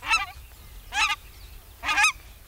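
Three nasal goose honks of a nene, an endangered Hawaiian goose and Hawaii's state bird, evenly spaced about a second apart, clear over a low background rumble, with no talking.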